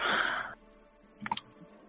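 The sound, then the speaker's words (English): A dense burst of rattling as dice tumble down a dice tower, then a short pause and a few sharp clicks as they settle. Fairly quiet, with no talking. “I love this dice tower.”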